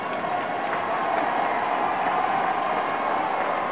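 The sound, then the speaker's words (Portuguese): A large crowd of hundreds of townspeople in Dayton applauds steadily as a visitor arriving with the mayor steps onto the bandstand and waves, a dense, continuous wash of clapping with faint cheering mixed in, holding an even, fairly loud level from start to finish, with no clear speech. “Ele acabou de subir no coreto e está acenando para a multidão.”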